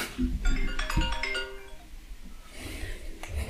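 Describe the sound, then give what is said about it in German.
A mobile phone ringtone plays a quick run of bright electronic chime notes for about a second and a half, then gives way to background noise and faint rustling. “Kann ich kurz rangehen?”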